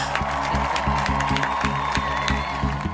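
A small group claps and cheers loudly and steadily, with a whoop rising above the dense applause, all close by and continuous across the moment.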